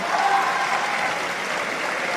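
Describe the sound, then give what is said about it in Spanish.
Steady applause from a large assembly, the Legislative Assembly in the Argentine Congress, a dense continuous wash of clapping at even volume throughout, with no voices standing out. “Un aplauso, la primera vez que somos todas mujeres.”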